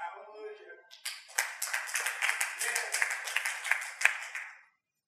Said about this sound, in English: I'm actually not sure why he clapped, really.